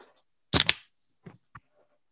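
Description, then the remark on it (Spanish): A can of Corona beer is cracked open with a sharp metallic pop and a brief fizzing hiss, followed by a couple of small clicks and quiet handling noise. “¿Esa es una lata de sol clamata o qué? Es una lata de corona, amigo.”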